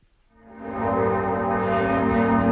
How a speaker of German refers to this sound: Die Glocken der Hamburger Hauptkirche St. Petri läuten zu einer ungewöhnlichen Zeit. Am späten Sonntagnachmittag rufen sie zum Gedenken an die Opfer des Amoklaufs bei den Zeugen Jehovas.